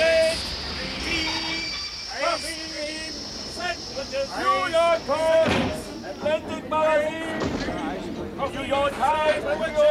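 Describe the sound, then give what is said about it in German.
A long-distance train bound for New York, running 41 minutes late, pulls into platform 1 of a station with a steady high-pitched squeal and occasional door thuds, while a crowd of people talks loudly throughout. “Der um 41 Minuten verspätete Fernzug Glucker Richtung Jersey, New York fährt ein.”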